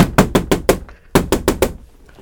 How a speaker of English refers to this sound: And before the Rebbe, before Rabbi Yontif Lippman Heller could look around, there was another knock on the door.